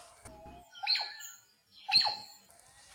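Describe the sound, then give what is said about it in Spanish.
A large magpie-jay (urraca) high in the trees at Los Planes de Renderos, Panchimalco, El Salvador, gives two loud, ringing calls about a second apart, each a bright harmonic note sliding downward, carrying clearly with no talking over them. “Ay, es que mira, estoy viendo ese pájaro grande que está ahí arriba. Mira qué bonito. Ay, escucha el canto que tiene.”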